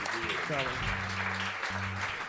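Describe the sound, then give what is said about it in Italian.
Steady crowd applause for Francesco Montanari fills the whole stretch, a dense, even crackle of many hands clapping, with low sustained musical tones humming beneath it. “Ma facciamo un applauso a Francesco.”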